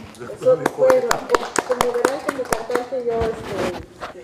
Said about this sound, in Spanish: Un aplauso, por favor, para